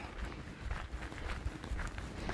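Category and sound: human body sound, footsteps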